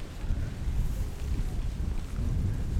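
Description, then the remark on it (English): Steady gusting wind roars, with a deep low rumble like thunder running underneath throughout. No voices are heard. “Wow, Stormy, yeah.”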